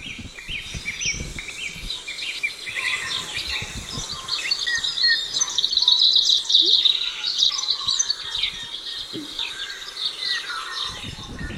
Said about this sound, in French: Ça c'est une radio à Londres, Birdsong Radio. Il n'y a que des oiseaux. Dans la capitale de l'Angleterre. Ah, on écoute.